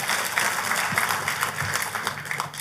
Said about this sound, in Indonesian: Tepuk tangannya yang paling meriah buat Tuhan kita.